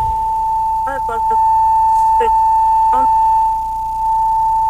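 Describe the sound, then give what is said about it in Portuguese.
A loud, steady audio feedback howl, caused by a phone caller's radio turned up too loud, rings at a single pitch through the whole stretch, with short bursts of voice breaking in now and then underneath. “seu rádio, o volume do seu rádio está muito alto, poderia baixá-lo um pouquinho que está dando microfonia.”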